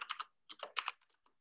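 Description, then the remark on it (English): Quick bursts of typing on a computer keyboard, several clustered clicks in a row with short pauses between them, moderately loud with no talking. “I'm gonna have to go to the old you can hear me type it. I'm, I'm typing.”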